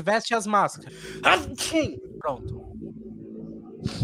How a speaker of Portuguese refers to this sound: Amém. Saúde, amigo. Amém.